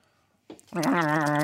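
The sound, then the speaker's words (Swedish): A person imitates a marten's call with a single loud, drawn-out, wavering bleat-like cry after a brief breathy lead-in, guessing at how a marten sounds. “Jag försöker göra ett mårdljud där.”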